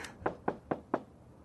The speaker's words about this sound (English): Oh, I could. Oh. I can knock on the door.